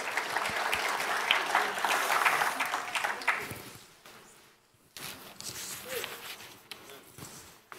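Audience applause, a dense crackle of many hands clapping loudly for about four seconds, then fading briefly before a second, softer round of scattered clapping.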